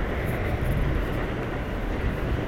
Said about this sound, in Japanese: 電車が電車が多摩川を渡っています